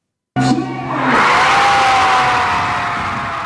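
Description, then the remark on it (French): A sudden roar of crowd cheering bursts out at the announcement of Pierre's victory in the 11th season of Star Academy on TF1, swelling into a loud, sustained wall of shouting and whooping, with a high-pitched excited scream riding over the noise throughout. “Explosion de joie lors de l'annonce de la victoire de Pierre à la 11e saison de la Star Academy sur TF1.”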